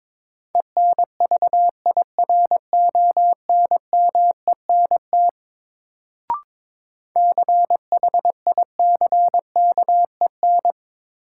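Morse code at about 22 words per minute in a new-word review drill: a single mid-pitched tone keyed in quick dots and dashes, in two runs separated by a short pause with a brief click. No voices.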